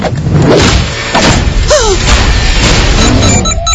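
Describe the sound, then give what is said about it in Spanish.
An expensive door crashes open with loud booming thuds and a splintering smash, followed by rumbling debris, while a brief whining, falling tone cuts through the middle of the din. “¡Wow! Esa puerta es cara.”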